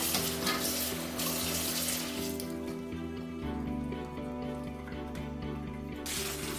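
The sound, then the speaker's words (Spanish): Tap water runs steadily onto a bamboo basket, wetting it well on all sides before rice is cooked in it, a continuous splashing hiss that shifts slightly in tone partway through, with a low hum beneath and no talking. “Para cocinarlo de la forma tradicional necesitaremos un cesto de bambú que tendremos que mojar bien por todos los lados.”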